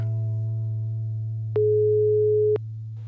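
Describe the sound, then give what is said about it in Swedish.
A phone ringback tone while placing a call: one steady, mid-pitched beep lasting about a second, sounding over a constant low electrical hum, with no talking. “Och ska vi inte ta och ringa Madeleine ja, och se vad hon har att säga här i kycklingtider?”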